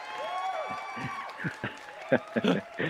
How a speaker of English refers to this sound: Oh, what a crowd! I didn't know you guys were allowed crowds back yet.